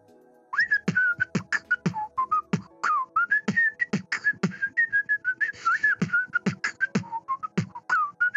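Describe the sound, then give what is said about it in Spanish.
A person whistles a wavering melody, whistling inward by sucking in air, while simultaneously making rhythmic beatbox percussion, sharp clicks and thumps in a steady groove, loud with no talking. “Puedo hacer beatbox silbando.”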